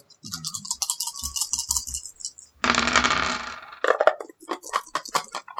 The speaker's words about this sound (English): So you roll. You got you got four dice. You roll two white, two black. Okay, I'm ready.